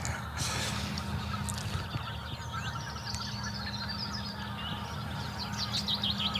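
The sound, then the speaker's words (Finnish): A large flock of migrating geese on flooded fields, on their way to the Arctic tundra, honks and calls continuously, many overlapping voices forming a steady, busy chorus, with a low rumbling background underneath. “Niin, Tämä ääni on väliaikainen, joka täällä nyt, nyt kuuluu.”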